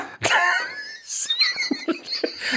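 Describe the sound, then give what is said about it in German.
A loud cough bursts out, followed by a raspy, voiced wheeze and then several shorter, hacking coughs in an uneven sequence. “Vor allem diese Huster waren sehr ja, gut.”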